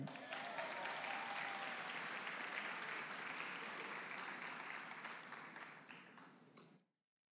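An audience breaks into applause, a dense, steady wash of many hands clapping for about seven seconds before tapering off and stopping abruptly.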